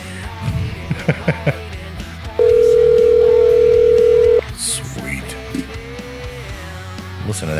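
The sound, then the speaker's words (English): A loud, steady telephone dial tone from a bar and grill's soundstage phone system hums for about two seconds as a call is placed, followed by fainter ringing tones, all over a busy background of clattering and indistinct room noise. “We're going to get the Ollie's Bar and Grill soundstage phone system cranking to call one of their own.”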